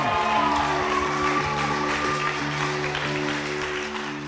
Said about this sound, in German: Und deshalb, hey, lass uns doch mal gemeinsam mit einem kräftigen Applaus